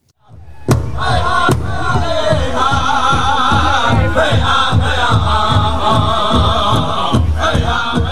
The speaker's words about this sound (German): Zum Beispiel ein Original Powwow, aufgeführt von den Shinnecock-Indianern. Das klingt dann so.